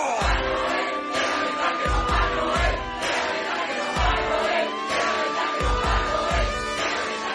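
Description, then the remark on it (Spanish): A crowd screams and yells together on cue after a countdown, in a loud, sustained roar that never lets up, layered over music with a steady, pounding beat. “Pongan las manos detrás de la cabeza y cuando yo diga, todo el mundo empezará a gritar ¡Tres, dos, uno!”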